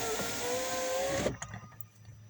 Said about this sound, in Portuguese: Deixa eu abrir a janela do carro aqui. Tá bem calor hoje.